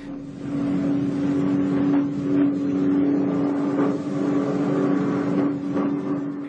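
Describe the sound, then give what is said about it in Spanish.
A steady, loud droning of combat aircraft engines, heard on a tape recording made at Belchite in the 1980s, holds a low, even hum throughout, with slight swells in intensity and no voices. “había grabado durante un buen rato, no era un segundo en una cinta, sino durante minutos y minutos, se escuchaban el zumbar de aviones de combate.”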